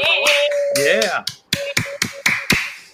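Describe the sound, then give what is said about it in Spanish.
A short burst of applause: about half a dozen sharp, fairly evenly spaced hand claps. They follow a moment of voices and a steady tone that continues faintly underneath. “Un aplauso. Un aplauso”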